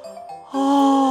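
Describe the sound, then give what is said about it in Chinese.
A single yawn voiced for Uncle Hippo, a hippo character in a children's bedtime story: a soft, breathy opening swells into a louder, drawn-out tonal "aah" that holds steady to the end, with no other sounds. “河马叔叔打了个哈欠”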